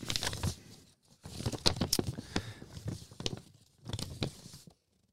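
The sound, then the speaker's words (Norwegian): Crisp crinkling and rustling of paper being fetched, in three bursts over about five seconds, with brief pauses between them and no voices. “Vent, skal vi Hente fram papiret.”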